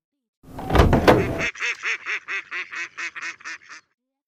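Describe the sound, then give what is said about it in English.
A short noisy clatter gives way to a duck quacking quickly, about ten loud quacks in a steady run, with no talking. “A duck with a doll runs out the door.”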